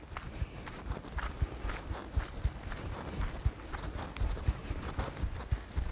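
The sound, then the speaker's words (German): Steady, light footsteps tapping at a quick, even pace, each step a soft thud, continuing for several seconds with no talking. Someone walks on the balls of the feet with the toes lifted off the ground toward the top of the foot, about 20 steps, as a foot exercise. “Ballengang. Das heißt, wieder auf die Zehenspitzen, aber die Zehenspitzen lösen.”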